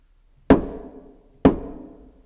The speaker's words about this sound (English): Knock, knock. Who's there in the, the, the other devil's name?